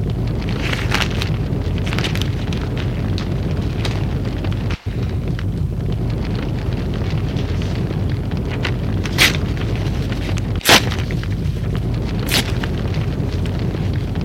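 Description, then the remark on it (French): Sheets of paper from a notebook burn in a bedroom fireplace fire with a steady roar, broken by scattered sharp crackles and a few louder pops. No one speaks. “Et brûle des feuilles.”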